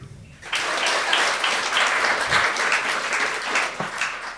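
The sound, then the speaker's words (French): An audience breaks into applause for those who love dogs, a dense wash of clapping that starts abruptly and holds steady for several seconds at a fairly loud level. “Par applaudissement, les gens qui aiment les chiens.”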